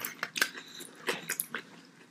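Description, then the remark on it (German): Wet open-mouthed chewing with repeated smacking and clicking, a series of sharp moist bursts at an uneven rhythm, fairly quiet with no talking. “Ja, ich bin ja mal gespannt, wie man nachher die Schmatzgeräusche dann hören wird.”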